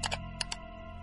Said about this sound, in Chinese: 他的身体挡住了我的视线，我看不到屏幕，只听得到按动鼠标所发出的那种细密的声响，就像是有人在不停的轻叩牙齿。